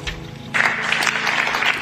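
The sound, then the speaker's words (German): Audience applause swells suddenly after a brief quieter moment, becoming a dense, steady patter of many hands clapping that stays loud throughout. “Und der Applaus brandete auf.”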